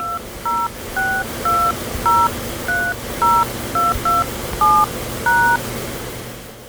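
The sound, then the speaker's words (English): A quick run of about eleven telephone keypad touch-tones as a resort reservation number or 10-digit home phone number followed by pound is entered into an automated Walt Disney World Resort phone line. Each short dual-pitch beep is evenly spaced and clear over a faint background hum, with no talking. “Please enter your resort reservation number or your 10-digit home phone number followed by pound.”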